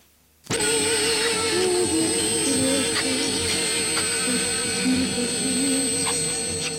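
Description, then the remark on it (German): After a brief silence, loud tape hiss from an EVP (electronic voice phenomena) recording, made while asking spirits questions and played back at very high gain, bursts in and continues steadily, a dense rushing noise laced with faint humming tones and warbling murmurs, with no clear speech. “Diese Aufnahmen sind auch als EVP-Recordings bekannt.”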